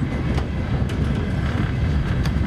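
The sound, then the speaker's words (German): A train rumbles steadily along the rails, a dense low-pitched roar with faint rhythmic clacks from the wheels, continuous, with no voices. “Ich plante nur nicht, dass ich mit diesem Zug weiterfahre.”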